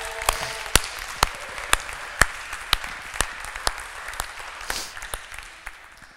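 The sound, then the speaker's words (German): A church audience applauds a person who has just chosen to start a friendship with Jesus, a dense wash of clapping with a few sharp, evenly spaced claps standing out about twice a second, steady and moderately loud for several seconds. “Lass uns der Person einen fetten Applaus geben.”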